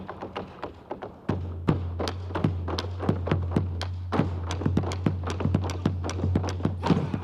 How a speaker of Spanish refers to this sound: El zapateo es un ritmo en sí.